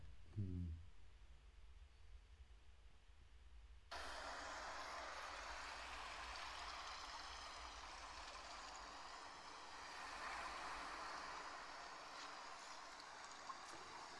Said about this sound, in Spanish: Vamos a escuchar un poquito el mar.